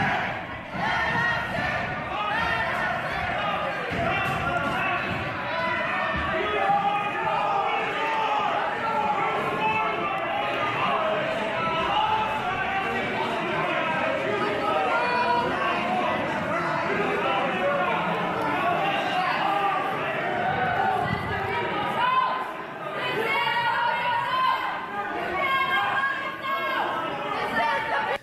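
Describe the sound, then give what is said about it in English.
A dense crowd of armed and unarmed protesters who stormed the Michigan State House shouts and chants loudly and continuously against a lockdown, saying "let us in", packed together, with overlapping yells and a steady roar that never lets up. “footage of armed and arm, unarmed protesters that stormed the Michigan State House to protest Governor Whitmer's lockdown”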